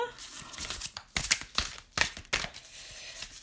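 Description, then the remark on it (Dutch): A thick deck of 68 cards being shuffled, with repeated papery riffling bursts and soft slaps that come in uneven waves over a few seconds. “Leuk hè, zo dat lijf kaarten schudden.”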